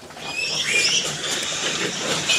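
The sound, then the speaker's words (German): A crowded chorus of fourteen-day-old piglets squealing and grunting as they jostle to drink milk, steady, with shrill high squeaks rising over a busy, continuous scuffle. “Piranha-Fütterung, weil die die, die stauben gleich alle her und dann drängeln die sich da ordentlich ran und wollen die Milch haben.”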